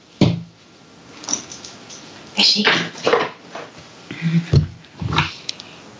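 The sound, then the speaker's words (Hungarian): Rustling and a few soft thumps as a dog is shifted off a Michael Kors bag it was lying on, with brief scuffling bursts and short breathy noises between quieter pauses. “Egy másodpercre el kell tűnnöm, csak a kutya a Michael Kors táskámon fekszik, úgyhogy Jó.”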